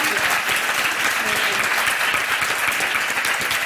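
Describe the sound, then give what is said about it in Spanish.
Steady audience applause fills the whole stretch, a dense wash of many hands clapping, sustained and fairly loud without breaking into distinct claps, given for a group of autism activists. “Un aplauso para Activismo Autista.”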